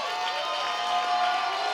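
A large crowd at a church service roars and cheers in praise in a continuous, steady wash of voices that fills the whole moment, with no single voice standing out.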